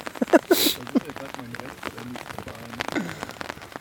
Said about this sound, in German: Wir entscheiden uns jetzt, ob wir zurück ins Studio gehen oder ob wir den Regenschauer abwarten.